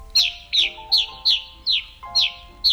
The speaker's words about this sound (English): The bird that settles in for winter roosting in the cliff swallow's abandoned nests is today's featured feathered friend the gray crowned rosy finch.